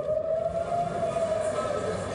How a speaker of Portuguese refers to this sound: sirenes voltaram a tocar em Tel Aviv, teve muita correria.